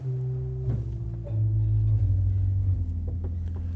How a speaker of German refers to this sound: Das, was ich hier mit den Füßen betätige, sind die Bassstimmen der Orgel. Hören wir mal den Untersatz 32 Fuß. hört man jetzt nur ein dumpfes Brummen.